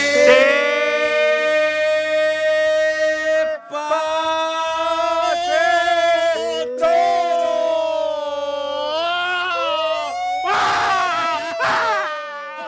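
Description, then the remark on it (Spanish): Loud, continuous siren-like wailing that rises and falls in pitch for the whole stretch, sounding like several voices imitating an ambulance siren, with a brief break midway and a rougher, strained burst near the end. “Prefiero la alerta ¡Callen ya la ambulancia, Dios!”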